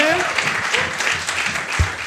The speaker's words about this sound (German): Aber Ganz wichtig ist zum Abschluss nochmal einen großen Applaus für all unsere Podcasts in der richtigen Reihenfolge.